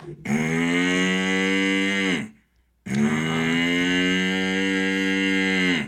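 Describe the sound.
A voice imitates a cow mooing, giving two long, loud, drawn-out moos separated by a brief pause, with no other talking.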